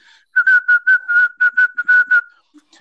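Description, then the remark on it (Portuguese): A voice whistles an imitation of Morse code as background for a telegram: a steady, high, unchanging tone broken into a quick run of about a dozen short and longer beeps, heard alone without talk. “Eu, eu procurei um fundo musical para o telegrama, alguma coisa de código Morse”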